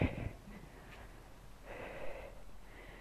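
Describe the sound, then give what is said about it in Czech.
A weak, strained, painful attempt at blowing the nose, with short snorting bursts of breathy air through congested nostrils, fairly quiet, no talking. “Tak smrkání moc nejde a dost bolí”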